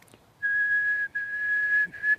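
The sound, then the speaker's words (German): A person whistles to a bird a single steady, high, pure tone, held in two long stretches with a brief break and a short third burst, clear with no talking. “Und wenn man sich dann dazustellt und die singt einem vor und ähm, man macht sowas vor oder nach, also man pfeift ihr, dann fällt die da ein, macht mit.”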